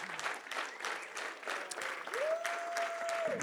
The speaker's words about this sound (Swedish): Medan vi står upp Ska vi ge Jesus en stor applåd också? För det är han som ska ära för allt.